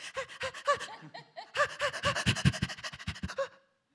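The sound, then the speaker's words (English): A man voices rapid, rhythmic panting effort breaths for a film, short voiced huffs and grunts in quick succession, fairly loud, for about three and a half seconds before falling silent. “Like very early on when we're working on these films, before we bring the actors in to record the efforts and whatnot, I'm very often, in fact, I did this whole ten, you know, the whole last ten minutes of the movie.”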